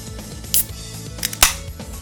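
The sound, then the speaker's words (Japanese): A can of Japanese new-genre beer made with traditional Shinshu Wase hops is cracked open for a tasting: a sharp metallic click of the tab, then a louder pop with a brief hiss, over soft background music. “では飲んでみたいと思いますじゃあこちらもね缶開けていきますさあじゃあ缶開けますね”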